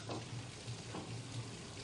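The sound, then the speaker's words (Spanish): Water runs steadily from a tap that cannot be turned off, a continuous hiss and splash with a faint low hum beneath, and no voices. “No puedo cerrar el grifo.”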